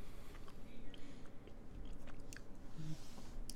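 Wet chewing of a pineapple-flavored Hi-Chew chewy candy, with steady sticky mouth sounds and small smacks repeating through the whole stretch, with no talking.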